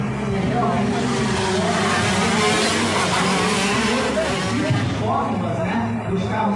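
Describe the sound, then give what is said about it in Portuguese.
A geared shifter go-kart, a type that reaches 160 km/h, revs hard and continuously on track, a loud buzzing drone with shifting harmonic bands as the pitch rises and dips, and voices talk faintly underneath. “Esses karts são os karts shifter com marcha. Chegam a 160 km por hora.”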